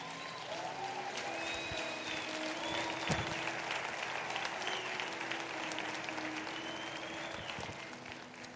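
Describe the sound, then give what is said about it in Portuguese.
Sustained applause from a large audience, dense and steady throughout, with occasional faint whistles or cheers rising above the clapping. “Vocês aplaudem aqui, cara?”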